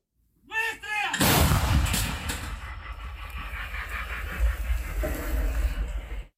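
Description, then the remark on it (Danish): A Wagner soldier fires an artillery cannon near Bakhmut once with a loud boom, then a long rolling rumble and echo carries on for several seconds. A brief voice is heard just before the shot. “Wagner-soldaten noterer ordene, går hen til kanonen og affyrer.”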